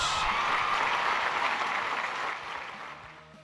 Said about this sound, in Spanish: Caray, aplausos.